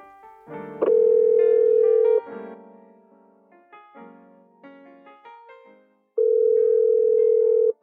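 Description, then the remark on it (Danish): A loud, steady telephone tone of an outgoing call sounds in two long bursts, each about a second or more, with softer layered tonal sounds in the gap between them and no talking. “Men øh, i stedet for det bare skal vi lige ved gidsning, skal vi så ikke øh, ringe op og høre, hvad han egentlig har at sige til det ene?”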